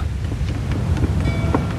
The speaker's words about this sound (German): Und dann hört er das Rumpeln. Captain! Ein Sturm!